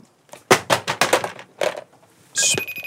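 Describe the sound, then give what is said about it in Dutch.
A car is dropped from hands in a crash-detection test and hits the floor, clattering in a quick series of sharp knocks and a later bump, followed by a brief high electronic tone as the alarm goes off on an iPad. No one speaks. “ik ga de auto uit mijn handen laten vallen”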